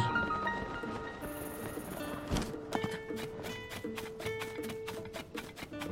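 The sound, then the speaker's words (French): Horse hooves clip-clop in a steady, even rhythm, crisp and close, starting a few seconds in over a layer of soft game music. “Euh, je veux bien prendre mon cheval.”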